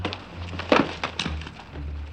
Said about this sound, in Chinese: 猎人想了想，找来一把剪刀，剪开了大灰狼的肚子。